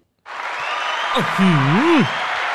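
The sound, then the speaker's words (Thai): Studio audience applause on a Thai TV show bursts in abruptly and holds as a steady, dense wash of clapping until the audience stops on its own, with a single voice briefly rising and falling over it partway through. “อ๋อมันหยุดเองไม่ไม่ไม่คนดูเขาหยุดเอง”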